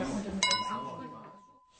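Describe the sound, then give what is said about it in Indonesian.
Glasses clink together once in a toast raised to a diver as a party carries on, a bright ringing chime that hangs and slowly fades, with a murmur of voices and party noise underneath. “Dengan riang diangkatnya gelas untuk si penyelam, pesta dilanjutkan.”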